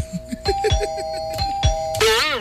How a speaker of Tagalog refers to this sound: Uy! Uy! Nay nag-text. Uy! Guwapo og text mo ramag ka ng doorbell.